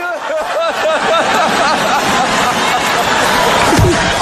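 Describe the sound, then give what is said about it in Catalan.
A loud crowd at the Oscars ceremony in Hollywood murmurs and laughs throughout, voices rising over the din, with a sharp slapping impact near the end as Will Smith slaps presenter Chris Rock, and the audience reacts. “És la bufetada que va clavar”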